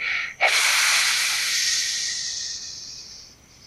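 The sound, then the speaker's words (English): A sudden loud, bright hiss and fizz of bubbling liquid poured from a cup into a well bursts in after a brief quieter hiss, then slowly fades and dulls over a few seconds as it goes down the well, with no voices. “Now quickly, pour it into the well and Rose turned the cup over and she saw the fizzing, hissing liquid. She could hear it as it went down into the well, fading, going.”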